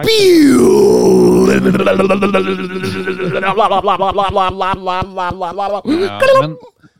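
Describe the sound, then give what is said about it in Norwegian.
A voice imitates the THX cinematic logo swell: a low droning hum that bends and slides in pitch before swelling into a sustained, buzzing tone, lasting several seconds, fairly loud. “Har du hørt om THX, det der”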